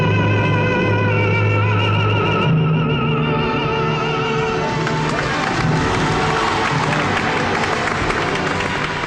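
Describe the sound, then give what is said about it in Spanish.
A held orchestral chord from the climax of Nessun dorma in Turandot gives way to loud, sustained applause and cheering from a Neapolitan opera audience at the Teatro San Carlo in Naples, for tenor Pedro Lavirgen, the dense clapping filling the second half without letting up. “Bueno, estos aplausos que le dan los napolitanos son los aplausos que todos los andaluces le damos a la carrera de Pedro la Virgen.”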